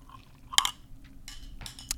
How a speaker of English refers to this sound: i gonna take a sip of water.